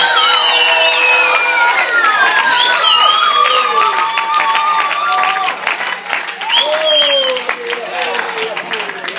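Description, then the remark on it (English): An audience erupts in loud, sustained screaming and cheering with steady applause underneath, many voices overlapping in high, sliding shouts and whoops that fill the whole stretch without pause. “Somebody scream real loud. Let the Lord know you're here.”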